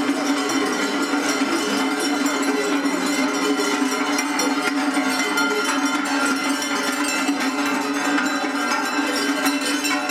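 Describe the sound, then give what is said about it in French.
A dense, continuous jangle of many cowbells clanking together on grazing cows, fairly loud, with no pauses and no voices over the full ten seconds. “le peu de fois on n'avait pas mis trop de cloches, de clap.”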